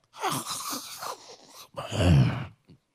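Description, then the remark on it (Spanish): A person makes a snoring imitation with their voice: a raspy, wheezing inhale followed by a louder, rumbling snort-like exhale, with no other talking. “Hay algunos que cuando duermen roncan”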